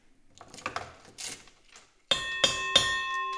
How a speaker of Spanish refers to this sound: la famosa campana porque nos vamos.